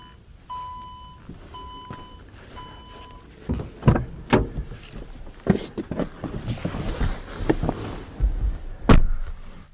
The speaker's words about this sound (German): Zum Schließen der Heckklappe habe ich hier oben nicht den üblichen Knopf. Der ist hier unten im Inneren. Ich kann aber auch den Fuß drunter fuchteln, dann geht die Tür auch zu.